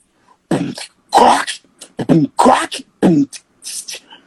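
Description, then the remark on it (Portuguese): A voice beatboxes a drum pattern imitating a drum kit that a sound technician has gated and compressed, like electronic drums, with punchy kick-like thumps and sharp hissy snare bursts in a steady rhythm, loud. “porque para imitar o timbre meio da bateria eletrônica.”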